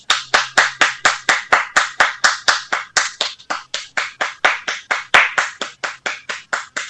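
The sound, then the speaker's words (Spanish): Steady, evenly spaced hand claps, about three or four per second, sharp and fairly loud, repeating for several seconds with no voices. “¡Aplausos, por favor!”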